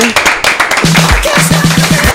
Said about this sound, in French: Je pense qu'on peut applaudir notre invité.